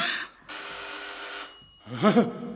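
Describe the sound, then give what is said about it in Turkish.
A bright, metallic bell rings in two bursts, a brief one followed by a longer sustained ring, fairly loud, before a short human vocal sound at the end. “Zil sesi uyandırdı onu.”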